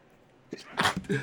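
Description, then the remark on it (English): A single sneeze: a short sharp intake, then a loud explosive burst of breath that trails off into a brief breathy tail. No talking over it. “Bless you”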